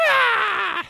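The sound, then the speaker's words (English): A person imitates a cow's moo with one loud, drawn-out vocal tone that starts fairly high and slowly slides downward, lasting under a second with no other speech. “What does a cow say?”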